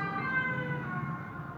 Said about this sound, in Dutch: Oh, volgende ambulance.